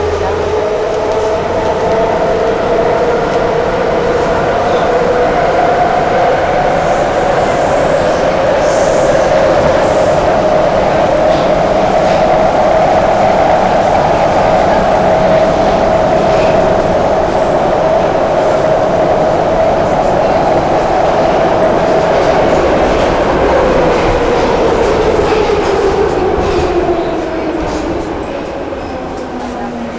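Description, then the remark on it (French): A Warsaw metro train runs loud and steady between stations, heading for Centrum station: a constant rumble of wheels on rail with an electric motor whine that climbs, holds, then slowly falls as the ride continues. “Next station Centrum. Convenient change to run and long distance trains.”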